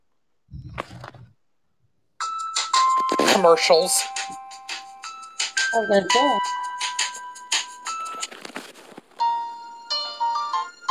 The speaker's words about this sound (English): you're gonna guess the the theme song to a particular TV show, okay. and I'm about to make sure the volume is turned up so y'all can hear it, and I'm about to play it right now